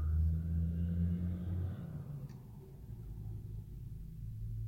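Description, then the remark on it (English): A 2013 Vauxhall Astra drives past, its low engine hum loud at first, then easing into a steady road rumble as it moves away. No one speaks. “Oh, what car's that? Oh, it's an Astra. That is a new. That's a 2013 Astra.”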